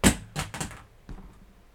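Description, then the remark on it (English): A cat knocks things off a single shelf: a quick run of thuds and knocks as small objects tumble onto a hard surface, a loud first hit, two more close together, then a softer bump, with no talking. “Sorry guys, my my cat is trying to get my attention by knocking everything that I own off of a single shelf.”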